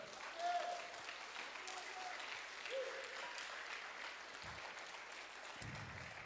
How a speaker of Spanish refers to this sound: Amén. Dele un fuerte aplauso a nuestro Señor.